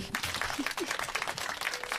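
Audience applause, a dense, steady patter of many hands clapping at once, filling the whole stretch at a moderate level with a few faint voices mixed in underneath.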